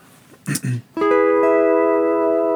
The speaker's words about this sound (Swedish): om jag nu spelar med A och B-pedalen, man hör det här tydligt att det rör sig fortfarande kring det här durackordet.